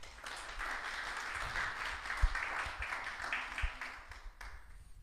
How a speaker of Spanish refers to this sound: Mire, vemos un ejemplo, voy a ver tres ejemplos y son dados ejemplos por mujeres. Un aplauso por las mujeres.